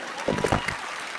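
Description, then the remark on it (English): A short burst of audience applause, a dense wash of clapping that swells briefly with a few louder hits near the start and then settles into a steady patter. “It is nonsense! Don't applaud it!”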